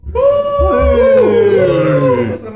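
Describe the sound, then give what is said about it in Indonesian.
A dog howls in one long, sustained, wavering cry that bends in pitch, loud and continuous for about two and a half seconds with rich harmonic overtones. “ada anjing, iya.”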